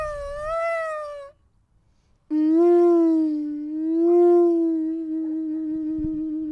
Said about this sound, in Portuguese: Será um búzio? É só neste país é que tu podes tocar búzio às 10 de manhã e ter quem já toda volta a ladrar.